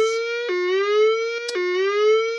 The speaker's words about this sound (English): A test of the fire alarm system will now be conducted.